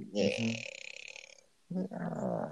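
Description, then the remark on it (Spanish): A voice imitates a slowly creaking wardrobe door, a strained, rattling squeak held for over a second, followed after a short pause by a brief spoken sound. “y en eso escucha cómo se abre la puerta del armario rechinante, ya sabes, la puerta así.”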